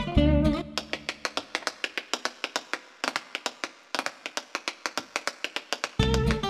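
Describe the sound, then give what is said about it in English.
Tap shoes strike a hard floor in quick, crisp rhythmic bursts with brief pauses, dozens of sharp clicks in all. Short snatches of tonal music open and close the passage. “did you know he's also a master tap dancer?”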